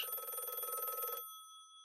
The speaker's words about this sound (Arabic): ولكن التليفون فضل يرن طول الليل لحد ما فصلوا التليفون خالص عشان يبطل رن